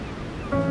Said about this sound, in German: Wir machen mal eine kleine Reise, gemeinsam an den Strand wie in meiner Think Week an der Ostsee. Ein Spaziergang am Meer. Du hörst die Wellen, du hörst die Vögel